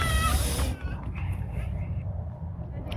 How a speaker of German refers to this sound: Und äh, so klingt ein Kind, wenn es kein Eis bekommt. Hört ihr, oder? Entschuldigung. Das ist aber auch blöd, wenn du kein Eis kriegst.